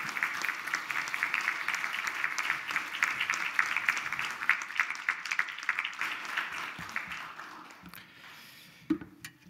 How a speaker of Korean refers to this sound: 우리 목사님 올라오실 때 뜨거운 박수로 환영해 주시면 고맙겠습니다.